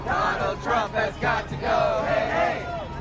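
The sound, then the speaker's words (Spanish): A large crowd of protesters in the streets of the United States chants loudly in unison, calling for Trump to be removed from office, many voices shouting in rhythmic bursts and then holding a long, sustained cry, with no single speaker standing out. “Mientras se realizaba el debate, miles de estadounidenses salieron a las calles de todo el país para pedir que Trump sea destituido del cargo.”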